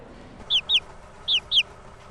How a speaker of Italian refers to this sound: Sono pulcini di, di gallina. E c'è un mio amico a Scuteri che li, cioè, li fa nascere e poi lui li vende in zona.